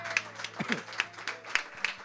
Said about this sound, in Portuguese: Dê uma linda salva de palmas a Jesus.